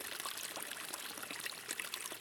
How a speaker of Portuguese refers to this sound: Vindo a sede, lembrou-se que ali estava um rio que corria caudaloso.